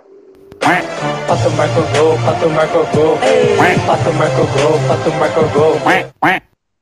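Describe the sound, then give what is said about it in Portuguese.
A loud duck sound effect: a dense, rapid stream of nasal quacks runs for about six seconds, then stops, followed by one short final quack. “Pato Paulo, né? Pato Santo Paulo, né?”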